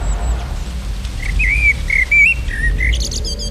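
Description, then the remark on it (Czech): Several birds chirp and whistle in a quick, varied series of bright calls over a steady low rumble of light wind outdoors, with rustling leaves. “Slyším hodně ptáků, kteří různě štěbetají a je lehký vítr a šuský listí.”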